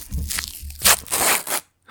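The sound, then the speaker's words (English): Loud chewing of a chewy Starburst candy into a microphone: a run of wet, crackly mouth sounds in irregular bursts, with a brief silent pause just before the end. “so I could eat a distracting, juicy candy.”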